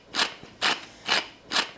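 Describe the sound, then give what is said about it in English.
Fresh black pepper being ground over turnips being seasoned for roasting, in four even, rasping twists, each a short gritty crunch with a bright scratchy texture, repeating at a steady pace with brief pauses between. No one speaks. “Little grinding of fresh black pepper.”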